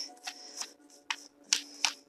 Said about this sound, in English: Shuffling the cards again.